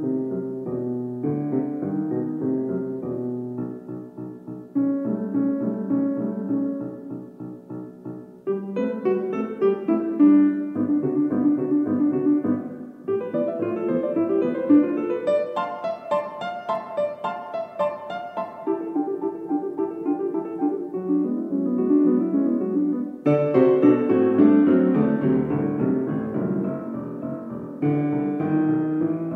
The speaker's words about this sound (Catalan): Escoltem com expressa Satí musicalment un partit de tennis en 36 segons, més o menys el que dura un punt jugat sobre terra batuda.